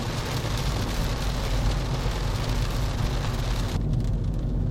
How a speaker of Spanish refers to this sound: Bueno, no ha parado de llover, pero parece que ahora eh, llueve bastante menos y no, hace, no hay ese ruido brutal que impedía grabar.